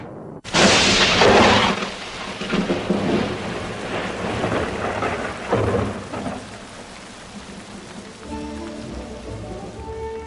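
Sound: thunderstorm with rain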